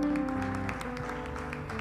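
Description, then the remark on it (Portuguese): A crowd claps steadily over sustained music, the rapid claps forming a continuous patter that stays fairly constant throughout. “Você pode aplaudir ao nome daquele que vive.”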